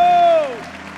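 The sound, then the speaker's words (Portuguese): A church audience applauds in a steady wash of clapping while a single loud voice cries out, its pitch sliding downward before fading back into the crowd noise, as people are called to shout to the Lord, applaud and worship. “Dê um brado ao Senhor e aplaudo neste lugar e adoro.”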